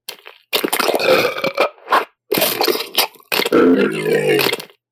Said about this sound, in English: so here is a slaadi bite action sound. And then I'm going to pair it with a success sound. Here we go. Bite.